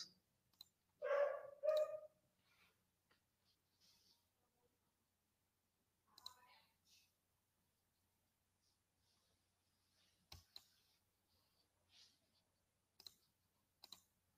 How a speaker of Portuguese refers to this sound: Eu cliquei em encerrar aqui, mas aí o, o meu mouse tá me sacando.